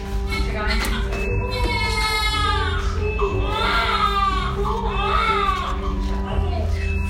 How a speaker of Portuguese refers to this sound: o registro que eu tenho do parto é da gravação de um celular que ficou longe de mim e da …